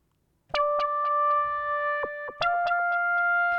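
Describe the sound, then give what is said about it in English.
A bright, buzzy lead patch called Snapper Lead on the Diva software synthesizer, with effects off, sustains one steady note, then drops to a slightly lower note partway through, with faint clicking transients along the way. It is loud, with no voices. “I'm going to play the same synth.”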